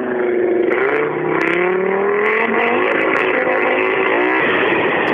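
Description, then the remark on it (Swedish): An Audi rally car's engine revs hard as it sets off at full throttle from the rally stage, its loud, raspy roar climbing in pitch through the gears with brief pops and crackles, continuous for several seconds with no voices. “Ytterligare en Audi är på väg, eh, på väg att åka härifrån.”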